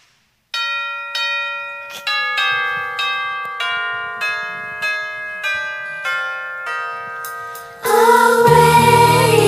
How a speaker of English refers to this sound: Ring that bell.